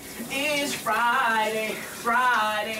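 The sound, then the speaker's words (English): Steady hiss of shower water running, with a person singing sustained, wavering notes over it in two phrases. “Sometimes you express it by singing in the shower”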